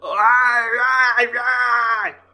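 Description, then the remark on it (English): A single drawn-out vocal wail, groaning and despairing, held loud for about two seconds before trailing off — a person imitating an anguished scream of dismay. “And it's it's a moment I think everyone watching screamed at.”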